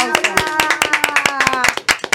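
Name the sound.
applause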